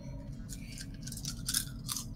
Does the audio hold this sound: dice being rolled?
yes